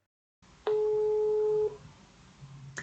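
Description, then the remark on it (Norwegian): A single telephone ringback tone sounds while a call to the communications director of Statsbygg connects: one steady, clear beep lasting about a second, fairly loud, followed by faint line hiss and no speech. “Det høres veldig rart ut, så jeg tror jeg må ringe kommunikasjonsdirektør i Statsbygg”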